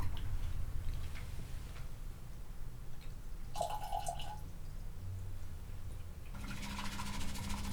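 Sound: hot water poured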